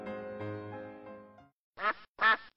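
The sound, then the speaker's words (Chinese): A steady, humming harmonic tone fades out, and after a short silence a duck under a window gives two loud, raspy, nasal quacks in quick succession. “什么东西在窗户底下叫个不停？原来是鸭子。”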